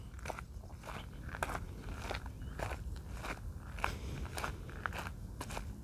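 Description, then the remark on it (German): Steady footsteps crunch along at an unhurried walking pace, fairly soft, each step a brief gritty crackle over a quiet outdoor hush with no one speaking. “Du kannst vielleicht meine Schritte hören.”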